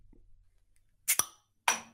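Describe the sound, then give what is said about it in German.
Glasses of Schremser Vienna IP beer clink together in a toast, two quick bright knocks followed by a third ringing clink a moment later, fairly loud against a quiet background. “Servus mit dem Schremser Bier, der …. Schremser Vienna IP. Brüsterchen. Sehr zum Wohl.”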